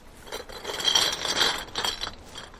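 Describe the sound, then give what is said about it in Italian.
A man in his fifties, bent inside a trash bin behind a crowded pub, wearing gloves and standing on tiptoe on a wooden platform, rummages through beverage cans: a continuous jumble of light metallic clinks, rattles and scrapes, moderately loud, with no talking. “un cinquantenne di origine messicana, è piegato dentro il bidone dell'immondizia.”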